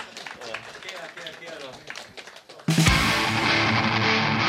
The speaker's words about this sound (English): Yeah, applause. Good, thanks.